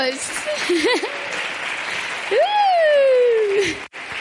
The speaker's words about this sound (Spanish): Muy bien, chicos. los mejores. Un aplauso para ellos.